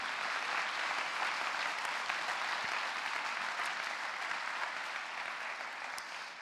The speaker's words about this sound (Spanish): Y me gustaría daros un aplauso y me ayudáis.